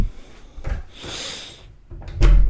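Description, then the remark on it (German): A front door is opened, with a short latch click, a broad creaking sweep, and a heavy thud as it settles, followed by quieter rustling. “Machen wir hier die Eingangstür auf.”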